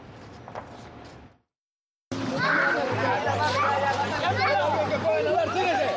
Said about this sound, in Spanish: Son los gritos de desesperación de una niña migrante que cae a las aguas del Río Grande al resbalarse de una balsa inflable. Se volteó el, colchón y casi se ahoga la niña.